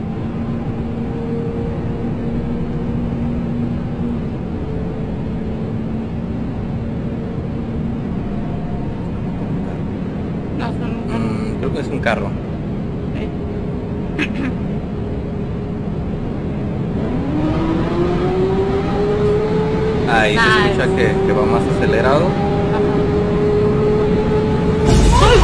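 A man drives a car steadily along a road with few other cars, its engine humming low, then revs up and accelerates with rising pitch in the final seconds, growing louder. No one speaks.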